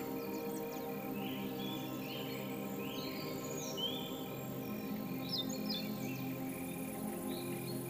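Birds twitter in scattered bursts over a steady, dense chorus of chirping insects among tall grasses near a fir grove at blue hour, away from houses and the street, with a fresh breeze; a continuous natural ambience at moderate, even loudness with no voices.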